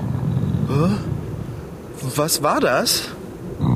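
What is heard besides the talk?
stomach growling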